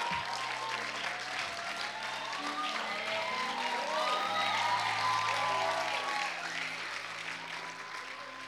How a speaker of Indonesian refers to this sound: boleh ke depan kita kasih tepuk tangan dulu.